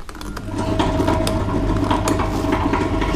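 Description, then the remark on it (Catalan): A small mechanism whirs and clatters steadily, with fine ratcheting clicks and gear-like ticking over a low rumbling hum: a model of the Serra Llunga flour mill, its wheel turned by the weight of water, driving the millstone, with no one speaking. “El molí de la farina de Serra Llunga.”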